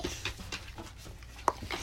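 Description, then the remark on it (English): A dog named Dottie pants in quick, soft, rhythmic breaths, with one short high-pitched whimper near the end. No one speaks. “So, okay, so I'm sorry if you hear Dottie making noises in the background”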